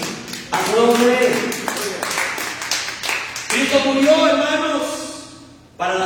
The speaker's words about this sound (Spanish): A su nombre, den un aplauso al Rey.